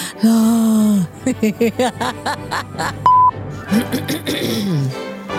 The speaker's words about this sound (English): Sometimes I get this phlegm in my throat, and I don't know why. I'm not eating any dairy. Well, mind you, I added yogurt back. Do you think I should quit my yogurt again?